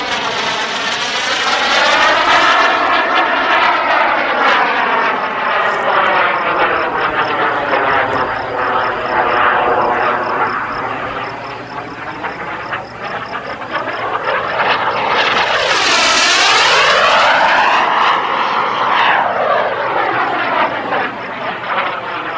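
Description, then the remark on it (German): A 5.7-kilogram pink plastic model jet's tiny kerosene-powered turbine engine roars loudly and continuously with a high whine, its pitch rising and falling as it sweeps past several times during an official record attempt for the fastest model aircraft speed, measured at 749. No one speaks. “Einen klitzekleinen kerosinbetriebenen Strahltriebwerk.”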